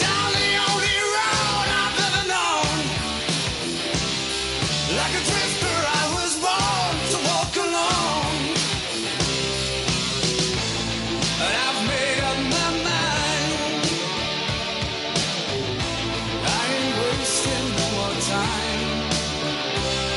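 A loud, dense rock song driven by distorted electric guitar riffs, with pounding drums and what sounds like shouted vocals, playing continuously at full volume throughout.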